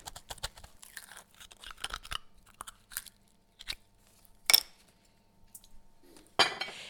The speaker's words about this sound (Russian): Устрицы мы покупаем дюжинами и открываем их обычно дома сами. Вот, вслушайтесь.